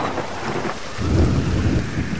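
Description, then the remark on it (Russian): A raging storm at sea, a violent whirlwind striking a ship and carrying it south, with steady heavy rain and rushing wind, as a deep rolling rumble of thunder swells up loudly midway and keeps growling. No voices. “Уже показались родные берега, как страшный вихрь налетел на Арго, подхватил и понес его на юг.”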